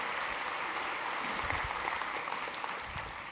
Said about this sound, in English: Let's give her a, a hand this morning.